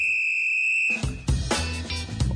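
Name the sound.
referee whistle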